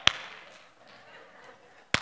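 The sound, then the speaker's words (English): A sharp hand clap rings out, then after nearly two seconds of faint hiss, one more lone clap lands right at the end, crisp and slightly louder: an after clap by the last person to clap after everybody else. “You're that girl that's like, I'm going to be the last person. I'm going to be the after clap person.”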